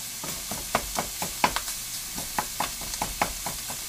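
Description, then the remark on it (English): Food being ground in the kitchen, a run of crisp scraping clicks repeating at an uneven, steady pace over a low background hiss, moderately quiet, with no one talking. “I'm trying to grind this now. I don't know if you hear me.”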